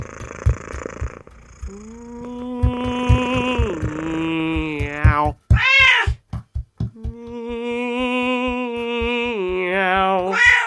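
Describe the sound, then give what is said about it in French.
A cat meows off-key in long, drawn-out, wavering cries that bend up and down in pitch, loud, over a steady low rhythmic thumping, with no talking. “Mais qu'est-ce qu'il a à se frotter contre moi comme ça Il est très près là quand même Je rêve ou il miaule faux Trop près Beaucoup trop près à mon goût”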